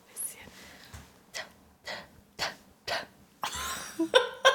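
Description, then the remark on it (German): Loud slurping of hot ginger tea: a string of short, airy sips at a steady pace, ending in a longer, noisier slurp with a few squeaky, whistling edges. “… trinkt übrigens gerade Ingwertee, falls ihr im Hintergrund so ein leichtes Schlürfen gehört habt”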